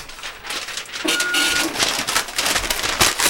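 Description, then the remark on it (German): A printer prints traffic reports, its mechanism whirring and rattling in uneven bursts with a brief tonal hum partway through, no voices over it. “Moment, ich muss noch mal gerade an den Drucker.”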